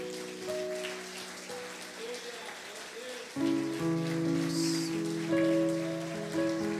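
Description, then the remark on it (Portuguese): A church audience applauds the word of God in a steady, dense crackle, and partway through, sustained keyboard chords swell in and play over the ongoing applause. “Aplauda a palavra de Deus, queridos.”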